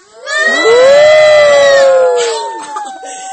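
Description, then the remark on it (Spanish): Several children loudly imitate an elephant's trumpeting together, a single sustained, rising-then-falling shrill blast lasting about two seconds, fading into scattered giggles and voices. “A ver cómo hizo con la trompa.”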